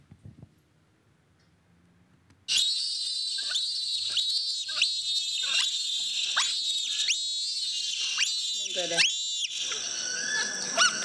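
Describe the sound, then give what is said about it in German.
A young bonobo, about three or four years old, screams after being bitten by an adult female, in a long series of shrill, piercing, high-pitched shrieks that rise and fall in rapid bursts, loud and continuous, after a brief quiet start with a faint low voice. “Hier gibt es eine junge Bonobo, vielleicht drei oder vier Jahre alt, die gebissen wird durch eine erwachsene Frau und dann schreit.”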